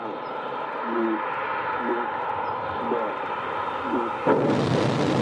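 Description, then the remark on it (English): First stage solid rocket motor ignition and liftoff: a steady background roar with a few evenly spaced low tones, then a sudden loud, hissing blast of noise near the end that keeps roaring. “First stage motor ignition and liftoff.”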